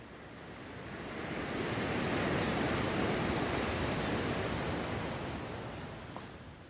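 Ocean surf washing onto a beach, a broad hiss that swells gradually, peaks in the middle and slowly recedes. Steady, with no voices.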